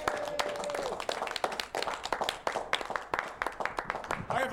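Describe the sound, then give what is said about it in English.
A crowd applauds steadily for a pizza maker who is present, with dense overlapping claps filling the whole stretch, some loud individual hand claps popping out, and a few faint voices mixed in. “And let's hear for that guy right now.”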